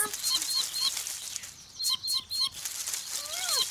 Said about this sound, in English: Hmm, it sounds like there is a chicken with the bush babies.